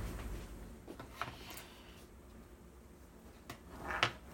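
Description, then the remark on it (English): Metal food cans containing tomato products and beans are shuffled and clinked against one another, a few irregular clanks and knocks over a low hum, with no talking. “And we have lots of cans over here, as you can, as you will be able to hear.”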